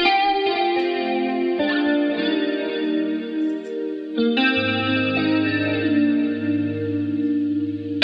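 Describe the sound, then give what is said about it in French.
A Seaboard Rise keyboard controller plays sustained, layered synth chords with a shimmering, effects-heavy tone; the harmony shifts a few times and a deep bass note enters partway through. No one speaks. “Ça s'appelle un Seaboard Rise, un clavier avec lequel on peut faire des trucs assez incroyables.”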